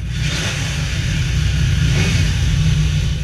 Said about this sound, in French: Le futur acheteur pourra alors faire vrombir le V12 3 litres de cette Ferrari 250 LM